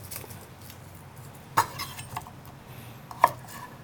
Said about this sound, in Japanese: にんにくを薄切りにしますなんか全く包丁を使わないのもいいなって思ったんですけど、はい、なんか料理してる気分が ないんでにんにくだけはスライスしようと思いました